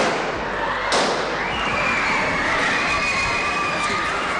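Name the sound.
gunshots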